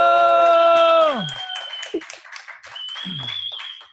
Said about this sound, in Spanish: Y hoy reciban con un fuerte aplauso porque tenemos invitada. Reciban con un fuerte aplauso desde la comodidad de su casa, taller u oficina a la chica Spider. ¡Bravo! ¡Bravo!